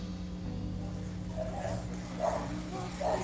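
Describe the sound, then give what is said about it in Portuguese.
A dog barks three times in the background, short faint yelps spaced about a second apart, over a steady low electrical hum with no one talking. “Ao silêncio, só o cachorro é, latindo no fundo.”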